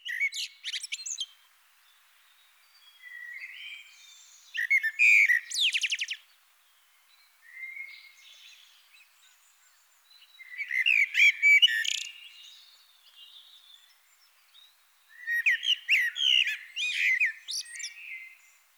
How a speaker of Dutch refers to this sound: En ja, het is echt wel een prachtige zang. Uh, wordt door heel veel mensen toch aanzien als de mooiste vogelzang die we eh, rond de deur kunnen horen. dat is echt een melodie hè, dat ja. die merel fluit.